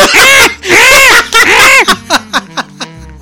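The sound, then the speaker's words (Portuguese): A voice imitates a baby gazelle crying: three long, loud, wavering bleats, then a trail of short, fading hiccup-like cries that sound close to laughter. “gazela não faz isso, tá, gente? Mas é o barulho.”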